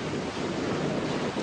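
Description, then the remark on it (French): Steady roar of sea waves washing in continuously, a broad rushing wash with gentle surges, moderately loud, with no voices. “Vous entendez C'est le bruit de la mer.”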